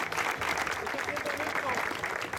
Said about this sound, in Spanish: Denle un aplauso porque está siendo honesto, por favor.